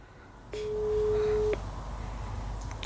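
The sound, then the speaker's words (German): A single steady electronic phone tone sounds for about a second, a flat mid-pitched beep like a ringback or call signal, as a call to a mobile phone goes unanswered, then cuts off, leaving quiet background noise. “Oh, keiner ans Handy.”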